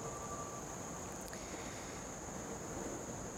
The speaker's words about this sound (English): Off to your left hand side, you'll actually, and you might even hear it, but you can also see where the water goes into the sewer system. This has been this way since the early 1900s